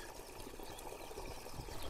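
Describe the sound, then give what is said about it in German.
A small stream trickles steadily, a soft, continuous babble of water with no voices, quiet but filling the whole moment without pause. It is a rivulet beside the source of the Altmühl river, in its spring area. “Und merkwürdigerweise kommt aber links von diesem Altmühlursprung auch noch ein Rinnsal.”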